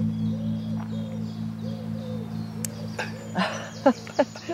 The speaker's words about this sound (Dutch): Nee, nee maar vogeltjes.